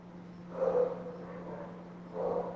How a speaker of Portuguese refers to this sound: Olha, isso foi um, foi um galo, não foi um cachorro, não, hein?